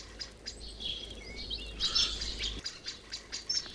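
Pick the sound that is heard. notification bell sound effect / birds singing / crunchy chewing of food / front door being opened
birds singing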